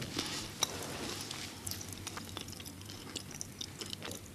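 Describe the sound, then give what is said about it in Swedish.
Crunchy chewing of a licorice-filled biscuit, with irregular crackling bites and soft squishy mouth sounds continuing steadily for a few seconds, no talking. “Ja, då kan jag säga så här det smakar kex. Men så är det någonting i mitten.”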